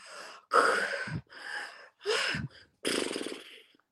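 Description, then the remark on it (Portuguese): A person vocally imitates the gasping, snorting snore of someone resuming breathing after a pause in breathing during sleep: a series of four or five loud, breathy gasps in quick succession, with no speech. “Que é o que a gente chama de ronco ressuscitador.”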